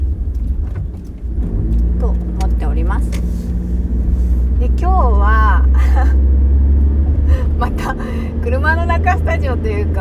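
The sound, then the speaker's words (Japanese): A steady, deep rumble fills the inside of a car throughout, a constant low drone beneath a person talking in a relaxed way. “車の中なんですけど”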